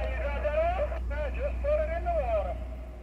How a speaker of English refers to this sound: Some other shrimpers come on the radio.